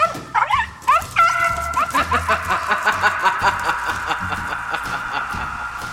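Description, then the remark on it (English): A female puppy barks in excited, high-pitched bursts, a few sharp yips up front and then a rapid run of quick, whiny barks that keep going to the end. “There's a cute dog!”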